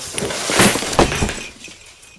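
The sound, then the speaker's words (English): A Christmas tree in a living room is stumbled into and knocked over, crashing with a loud burst of shattering glass followed by a second jumble of breaking and clinking ornaments that trails off into faint tinkling. “Looking around, nervous, I stumbled on the Christmas tree and knocked it over.”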